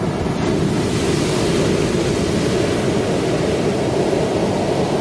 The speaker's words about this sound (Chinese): 一开始，先来让大家听听看七星潭的海浪声。它仿佛好像有话想要对你说，所以你会很认真的、仔细的去听。这是一首美丽动人、简单的歌曲。